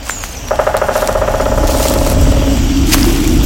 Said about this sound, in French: Approche-toi, doucement. On tape sur un arbre. Mais c'est un pivert Pourquoi tape-t-il du bec contre les troncs on pourrait penser qu'il tape son bec contre les arbres afin de se nourrir, mais ce n'est pas la raison principale.